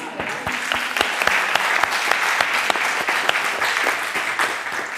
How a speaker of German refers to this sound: Ich habe sie so inspiriert, dass sie ihren Job gekündigt hat während der Ausbildung. also auch das hat einen Applaus verdient.